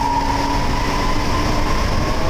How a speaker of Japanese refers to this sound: 今日はこの音でもうお分かりの方もいらっしゃると思いますけれども、はい、我々は今札幌市営地下鉄南北線真駒内駅からお届けしておりますお送りしております